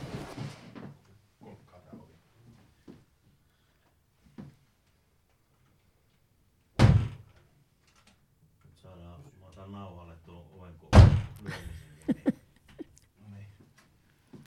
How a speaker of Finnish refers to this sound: Keskeytetään vähäksi, otan laittaa ovi kiinni.